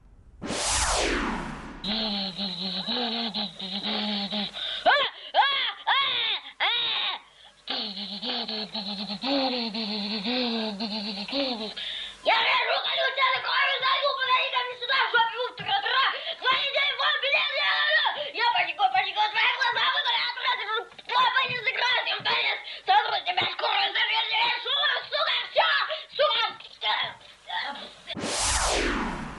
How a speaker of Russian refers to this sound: Давайте мы э, все перейдем от слов к делу. Э, лучше один раз услышать, чем сто раз услышать в пересказе. Полтергейст собственной персоной прямо сейчас в нашем эфире.